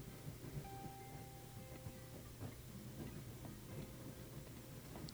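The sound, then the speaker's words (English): A train rolls steadily along the rails with a constant low rumble, rhythmic clicking of wheels over track joints, and faint squealing metallic tones. “The rails and the wheels roll along, connected perfectly in time.”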